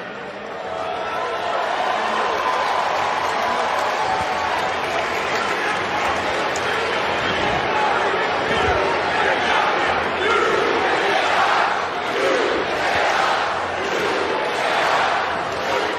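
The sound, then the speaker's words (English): A large wrestling arena crowd roars and shouts continuously, a dense wall of cheering and yelling with scattered clapping that swells and stays loud throughout, with no clear single voice standing out. “You hear that? They know about the pressure because these people know, every single one of them knows that that pressure is what turned us into diamonds.”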